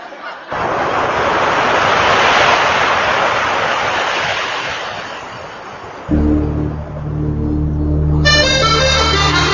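A loud, steady wash of ocean surf rushes in after a brief pause, then gentle sustained music rises beneath it, with brighter tones joining near the end.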